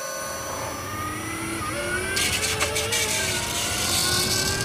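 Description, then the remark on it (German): The electric drive motor of a T61 electric van, with 83 kW peak power and a 37.3 kWh battery, whines steadily as it accelerates, several tonal pitches sliding upward over a low rumble of road noise, with a brighter hiss joining midway. “Wir hören nochmal kurz rein in eine Soundaufnahme bei Beschleunigung des Fahrzeugs.”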